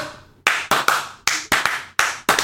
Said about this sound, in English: Okay, we got slow clap again.